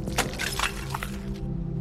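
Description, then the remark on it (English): A mobile phone is thrown hard against a wall: a hard impact shatters into a brittle crash, followed by a few scattered cracking bursts of breaking pieces, all over a steady tonal hum of music in the background. “So he threw it against the wall as hard as he could, shattering it to pieces.”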